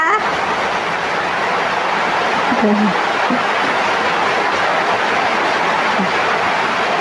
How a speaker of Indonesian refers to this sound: apa-apa ya backsoundnya sambil hujan